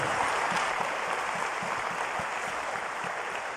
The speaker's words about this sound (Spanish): No solamente, denle el aplauso al Señor si se lo va a dar.